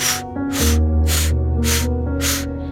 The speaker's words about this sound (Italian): Inspiro naso, trattengo respiro, butto fuori bocca con 5 ispirazioni forzate, velocissime. Inspiro naso, butto fuori bocca 5 espirazioni forzate.